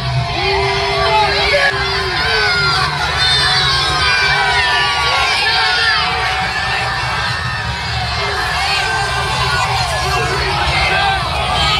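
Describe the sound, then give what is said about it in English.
A large crowd at a Joe Biden appearance in Long Beach shouts and yells at him without letup, a loud, dense roar of many overlapping voices with sharper individual cries rising out of the din throughout. “I mean, just listen to the way he gets receptions from crowds, like when he was in Long Beach. Listen to this.”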